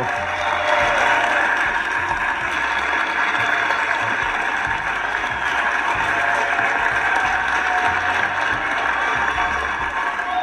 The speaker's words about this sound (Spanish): Sí, ese aplauso es para ustedes, ese aplauso es para ustedes, se lo tienen bien merecido. Claro que sí.